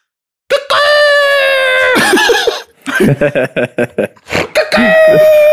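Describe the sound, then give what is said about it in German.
A voice imitates two roosters crowing at each other in turn, with long, strained, tonal calls, broken in the middle by a burst of choppy laughter before another drawn-out crow. “Dann fangen auf einmal zwei Hähne an, im, im wirklich abwechselnd sich anzubrüllen, diese Bastarde.”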